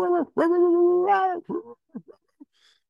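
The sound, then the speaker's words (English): A person imitates a coyote's alarm bark, the 'booger bark' coyotes use to warn each other: a loud, drawn-out wavering yowl, then a handful of short, choppy yips that trail off quietly. No other speech. “The coyote just sits out there and goes,”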